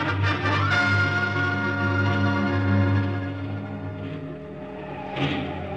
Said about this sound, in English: That motorcycle ride through enemy held territory with that car full of Nazis firing at me was wilder than the stories in the comic books I used to draw for.